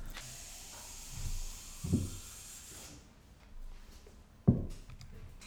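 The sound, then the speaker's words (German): Water is poured to refill a glass with a steady, bright hissing splash for a few seconds, then stops; two soft knocks follow, the louder one near the end. No one speaks. “Ich muss schnell Wasser auffüllen.”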